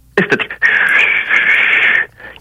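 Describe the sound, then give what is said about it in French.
A person vocally imitates the steady, airy whistling hiss of air against an aircraft's fuselage, like air rushing through a pipe, held for about a second and a half after a few short breathy bursts, fairly loud. “Un sifflement comme si un tuyau, l'eau, l'air passerait dans un tuyau, un sifflement comme un genre de sifflement, dans le fond.”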